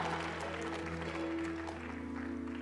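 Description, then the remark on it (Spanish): An audience claps steadily, applauding the Lord, a dense wash of applause over sustained keyboard chords, holding at an even level for a few seconds. “Vamos, denle un fuerte aplauso al Señor.”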